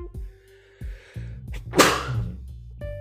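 sneeze

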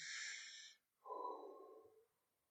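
a deep breath

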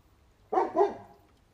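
dog barking

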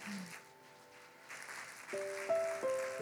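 audience applause

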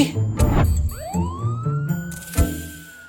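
ambulance siren passing by

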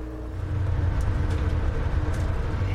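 bus interior engine rumble

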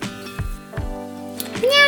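cat meowing

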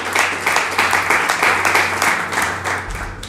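loud applause

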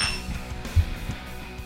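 glasses clinking

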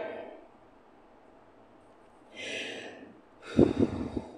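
heavy breathing

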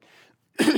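cough

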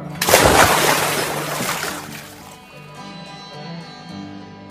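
water splashing

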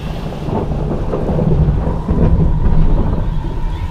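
thunderclap with rain

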